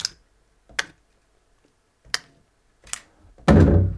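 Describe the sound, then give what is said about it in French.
Pruning shears snip sharply about five times at uneven intervals, crisp, the last cut louder and more drawn out with a brief rustle. No one speaks. “Euh, on a le bruit du sécateur.”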